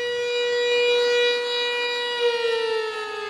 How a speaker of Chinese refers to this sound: 二零一七年九月十八号。九一八事变爆发八十六周年，这天上午，包括我们南京在内的全国多个城市都拉响了勿忘国耻的防空警报。